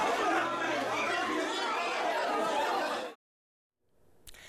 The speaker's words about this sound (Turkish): Sosyal mesafe zaten imkansızdı. Bir de maskesizdi çoğu kişi. Gürültünün içinde herkes birbirine bağırarak seslendi.